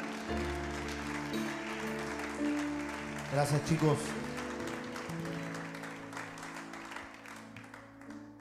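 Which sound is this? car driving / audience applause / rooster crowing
audience applause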